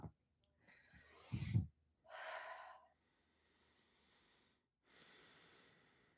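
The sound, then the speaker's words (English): A slow, deep breath drawn in through the nose and released in a long, airy exhale, followed by a softer breath a moment later, with no talking. “But you know, I didn't tell you to breathe. I just breathed.”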